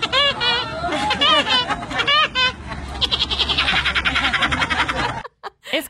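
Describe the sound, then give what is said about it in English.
A woman in America imitates Woody Woodpecker's laugh: a few high, warbling whoops followed by a rapid, staccato cackle, loud, cutting off abruptly near the end. Filmed by a friend at an amusement park. “a woman in America's gone viral for doing an excellent impression of him,”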